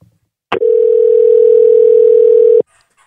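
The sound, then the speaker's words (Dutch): A single loud, steady telephone ringing tone hums for about two seconds as a call is placed, opening and closing with a sharp click, with no voices around it. “een belletje richting het noorden gaan doen”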